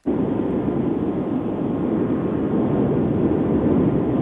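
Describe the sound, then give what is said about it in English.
Continuous low rumble of a car driving, engine and road noise holding steady and fairly loud for the whole stretch, with a muffled, narrow phone-line quality and no one talking. “we we can we can hear you driving.”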